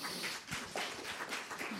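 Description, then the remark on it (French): An audience claps steadily for a speaker being introduced, a dense patter of many hands, fairly soft and even throughout, with no voices. “c'est le parcours de Sophie Le Calvez, sous vos applaudissements”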